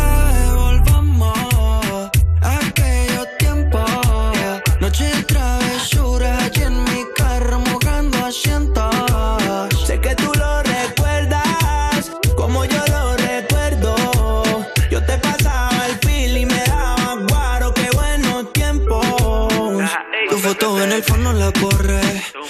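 A reggaeton track plays loud and upfront, with a steady thumping bass beat and a melodic sung vocal carried over a dense, continuous instrumental mix.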